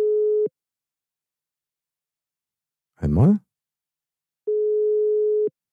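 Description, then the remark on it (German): Two steady, mid-pitched telephone ringing tones sound on a call, the first clipped short, the second about a second long, with a man briefly speaking a single word in the pause between them. “Ich sag beim dritten Mal klingeln, hebt ab.”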